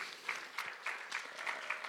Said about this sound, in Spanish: Al tercer día él resucitó y por eso hoy estamos celebrando Easter, la resurrección de Jesús. Dar un fuerte aplauso a Jesús.